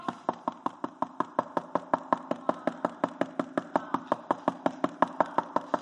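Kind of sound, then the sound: impact, repeated knocking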